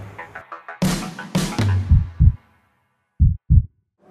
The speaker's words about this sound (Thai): แบบเวลาแกเจอใครแล้วหัวใจเต้นแรงนั่นแสดงว่าแกกำลังโดนทฤษฎีสะพานแขวนเล่นงานอยู่